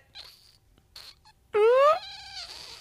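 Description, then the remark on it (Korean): Air squeezes out of puffed cheeks: a few soft hissy puffs, then a loud squeaky sputter rising in pitch for about half a second before fading into breathy hiss. “볼빵 이게 음. 바람이 음. 셀, 셀 수밖에 없어요.”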